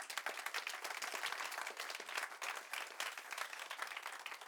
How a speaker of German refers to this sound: Geben wir diesen Leuten auch nochmal einen kräftigen Applaus, bitte sehr.